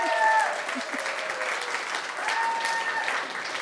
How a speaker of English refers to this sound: The choir and the staff are all applauding.